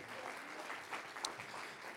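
A crowd applauds steadily, a dense, even wash of many hands clapping at once, with one sharper bright clap standing out near the middle.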